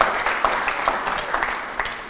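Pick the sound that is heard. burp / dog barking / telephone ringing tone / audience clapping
audience clapping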